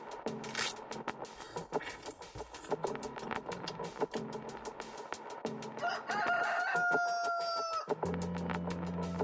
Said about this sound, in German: Auch der Hahn vom Tonband kommt. Obwohl es stockdunkel ist, kräht er mit voller Inbrunst.